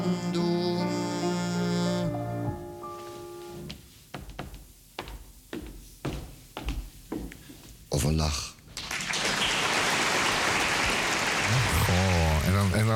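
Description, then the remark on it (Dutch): Singing fades out, followed by a few scattered claps that quickly swell into loud, dense applause from a crowd, lasting several seconds before a voice briefly returns. “Ik, ik weet niet, het is een soort opluchtend applaus.”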